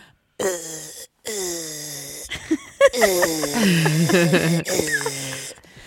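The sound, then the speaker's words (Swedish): A person vocally imitates the strained, effortful groaning mixed with breathy hissing that their body makes when tensing up, delivered in several loud bursts with wavering pitch, like air leaking under tension. “det är pyspunka på liksom hela gubben”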